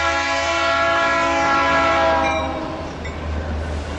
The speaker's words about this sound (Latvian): Tramvajs vairs neklunkurē, tramvajs lido uz tirgu, uz tirgu nopirkt sviestu, krējumu, pirmo sābolus un žigli uz centrālu cietumu.